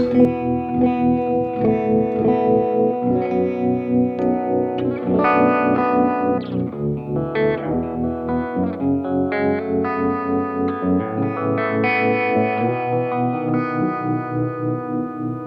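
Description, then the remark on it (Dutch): A low-tuned baritone guitar in open D tuning rings out sustained open chords with a pulsing tremolo effect, the volume throbbing steadily throughout, played alone with a slightly overdriven, effected tone. “Zeker met die tremolo is dat wel eh, Ja, mooi ja.”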